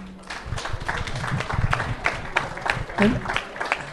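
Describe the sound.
An audience applauds, a dense, steady wash of many hands clapping that carries on for several seconds, with a few faint voices and a brief whoop mixed into the noise.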